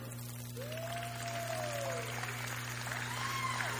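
An audience claps steadily for a few seconds, the applause soft, with a couple of rising whoops or whistles over it and a low electrical hum underneath.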